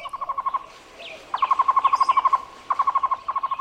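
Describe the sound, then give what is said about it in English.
A Cuban trogon, or tocororo, the national bird of Cuba, calls in rapid series of short, evenly spaced hooting notes at a steady mid pitch, repeating in bursts with brief pauses, with no talking. “This bird is the tocororo, the Cuban Trogon, chosen as the national bird of Cuba.”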